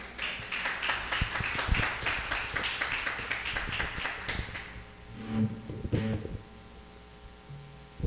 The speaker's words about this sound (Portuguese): As palmas louva o Senhor nessa noite.